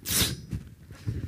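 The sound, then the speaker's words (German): A single sharp sneeze bursts out loud at the start, followed by quiet low murmuring and breathy sounds. “Gesundheit.”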